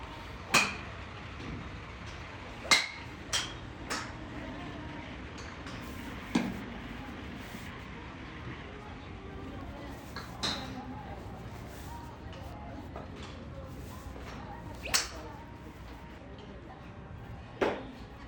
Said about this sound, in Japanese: ゴルフを極めたく先日打ちっぱなしデビュー果たしましたキーンといい音を響かせているのは気持ちよくボールを飛ばしている周りの方々でごつっと鈍い音を発しているのはボールを打っているつもりだが地面を叩いている私です50ヤードも飛ばせることができなかった90分でした